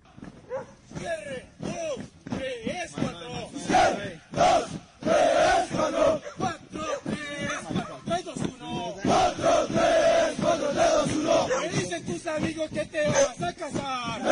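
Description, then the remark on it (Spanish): A group of voices sings a military marching chant in loud unison to a steady, driving cadence, with syllables punched out rhythmically and sustained sung notes throughout. “Escuchemos otro de los cánticos que también eh, hacía referencia a Adriana Villegas en su columna.”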